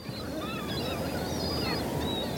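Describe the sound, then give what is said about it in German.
Several gulls call over one another in a continuous, overlapping chorus above the grounds of the University of Greifswald, over a steady low rumble of outdoor background noise. “Über dem Unigelände lärmen die Möwen”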